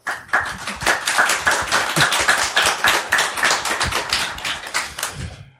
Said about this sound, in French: Voilà, bienvenue, bienvenue, on peut les applaudir.